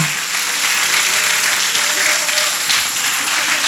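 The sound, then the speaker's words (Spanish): An audience at a religious retreat breaks into sustained applause for the Lord, a dense, steady wash of many hands clapping at once, loud and continuous with no pauses for the whole stretch. “¿Cuánto le dan un aplauso al Señor solamente porque lo que han escuchado hasta ahorita?”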